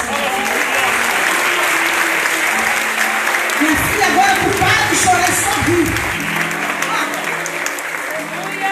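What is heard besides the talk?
audience applause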